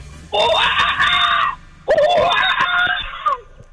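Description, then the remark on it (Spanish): A person imitates a monkey's call with two loud, shrill, sustained screeches, each over a second long, separated by a short pause. “El monito va así, mira.”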